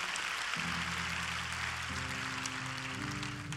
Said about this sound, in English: And we praise God for his blessings upon West Angeles Church and upon our people. Let's clap our hands to uh, the Lord one more time.